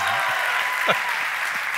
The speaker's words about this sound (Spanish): Así que denle un aplauso por favor a la pastora. Y no me regañó en ninguno de esos días. Eso merece doble aplauso.